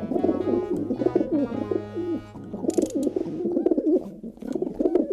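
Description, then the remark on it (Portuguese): A pigeon coos in a steady run of soft, throaty, warbling calls that rise and fall, with a faint low droning tone underneath. “O Corinthians agarrou na árvore e, quando começou a empurrar, ouviu um som ligeiro como um de um pombo a arrulhar.”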